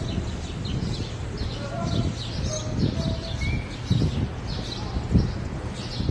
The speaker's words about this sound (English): let's see what morning noises we have here. And it's not as bad just to hear the birds chirping in the morning.